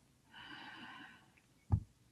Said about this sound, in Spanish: Por ello vamos a empezar con la respiración para el cuerpo. Inhalamos profundo